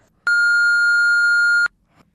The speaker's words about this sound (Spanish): me has llamado pero no te puedo coger, llámame luego o déjame un mensaje después de la señal. ¡Pi! que este no es, que este es. ahora, ahora va el pi de verdad, ¿eh?